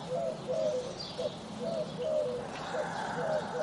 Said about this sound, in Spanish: Sentimos las aves, sentimos el viento